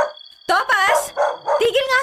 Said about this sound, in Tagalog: Galit na galit yung kahol niya eh. Di mo ba naririnig?